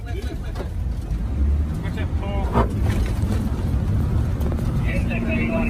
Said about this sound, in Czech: To, co teď slyšíte, tak to jsou zvuky z videa, které obletělo svět. Natočili ho hasiči z Nového Jižního Velsu, kteří rychle projížděli hořící buší a plameny šlehaly i na jejich auto.